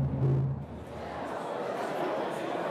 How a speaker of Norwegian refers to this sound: Men dette er lyden av glede og forventningssus. I går samla lokalpolitikere og næringsliv seg til konferanse i samband med åpning av Kvivsvegen.